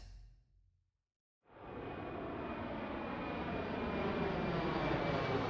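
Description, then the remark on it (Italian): After a brief quiet start, a steady airplane cabin engine drone fades in and holds, a dense, continuous roar with a faint high whine, fairly loud, with no voices, heard inside an airplane as Dakar comes into view from the window. “Dal finestrino dell'aereo comincio a intravedere Dakar.”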